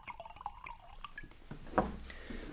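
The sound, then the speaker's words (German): A drink is poured for guests from a lidded vessel, with soft irregular trickling and dripping that swells into a louder splash partway through before settling into a gentle trickle. No one speaks. “Theodor nahm den Deckel von dem Gefäße herab und schenkte seinen Gästen ein.”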